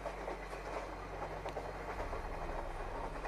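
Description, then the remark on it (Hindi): A train rolls steadily along the rails at night, a continuous low rumble with faint rhythmic clickety-clack, heard from inside a dark carriage with the lights off, at a moderate level with no one speaking. “गाड़ी में अंधेरा था सिर्फ ट्रेन की आवाज़ सुनाई दे रही थी और कोई आसपास दिखाई नहीं दे रहा था”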